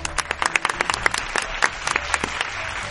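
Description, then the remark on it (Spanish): An audience applauds for about three seconds for a participant who correctly answered a Bible quiz question, a dense patter of many hands clapping with sharp individual claps popping out of the wash, at an even, moderate loudness. “Aplauso para”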